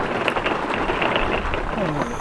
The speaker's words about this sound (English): Lord God in heaven, I thank you for the rain. Lord, I'm used, to, many of us are used to the heat uh, but we are also used to storms coming through to break up that heat and to cool things down a little bit. And Lord, we have not seen much rain.